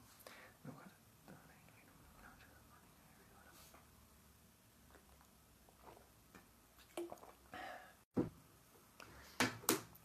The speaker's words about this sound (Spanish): Voy a tomar un poquito de agua y la... leo de nuevo.